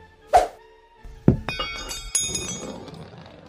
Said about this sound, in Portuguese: É indiferente do rolar o dado ou não, porque é uma bola de vidro e ela só bate no chão. Ela não quebra, mas ela só bate no chão depois de um tempo.